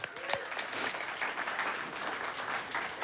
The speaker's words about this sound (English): It's okay to clap and honor God for what He's doing.